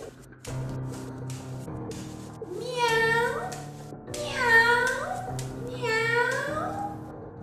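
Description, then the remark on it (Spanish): A cat in the basement of a house meows three times in a row, each a drawn-out rising and falling cry, clear over a low, steady background hum. “De repente en el sótano se escuchan ruidos extraños y se escuchó el maullido de un gato.”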